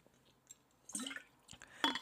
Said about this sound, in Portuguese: Deixem-me só beber um bocadinho de água porque eu estou doente, já deu para perceber, provavelmente.